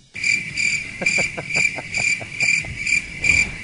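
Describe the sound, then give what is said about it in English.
A steady cricket chirping sound effect fills the scene, a bright high-pitched trill pulsing in a regular rhythm, fairly loud, with no voices present. “we got good use out of the cricket sound yeah. effects this week.”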